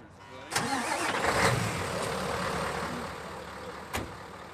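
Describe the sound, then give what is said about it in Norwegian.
A brand-new snowplow truck with a new plow in Norway: its engine turns over and catches with a sudden burst, then settles into a steady, broad rumbling idle, with a short sharp clunk near the end. “Det er en helt ny lastebil og ny plog.”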